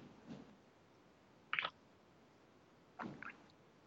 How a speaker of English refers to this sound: If I take wa- drink water, will people see?